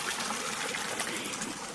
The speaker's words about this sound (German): was ist das für ein Brunnen, den wir hier plätschern hören? Das ist der Michaelsbrunnen.